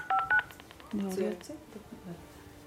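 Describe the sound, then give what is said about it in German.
A quick pair of electronic dial-tone beeps from a smartphone keypad as a woman places a phone call, followed by a short burst of a faint voice, as if from the phone line, over quiet background. “Und man kann auch äh, telefonieren. Genau. Sie telefoniert jetzt”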